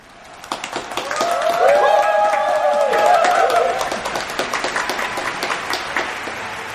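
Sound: audience applause and cheering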